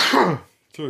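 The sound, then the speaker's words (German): A single loud sneeze bursts out and trails off, followed by a short pause before a voice starts speaking. “Gesundheit.”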